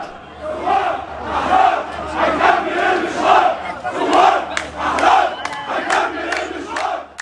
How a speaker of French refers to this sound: Le slogan bien connu appelant à la chute du régime résonne encore dans les rues de Beyrouth.